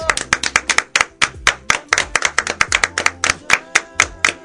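Applause of steady, sharp hand claps, roughly seven per second, loud and crisp, continuing evenly for a few seconds with no voices over it.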